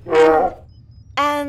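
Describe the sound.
A person imitates an elephant's trumpeting with two loud, brassy vocal blasts separated by a short pause, the second one sustained and steady to the end.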